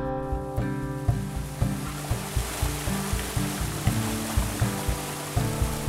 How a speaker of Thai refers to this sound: พอมาถึงน้ำตกเนี่ยสิ่งแรกที่ได้ยินก็คือเสียงน้ำตกค่ะ เพราะว่ามันดังมากๆ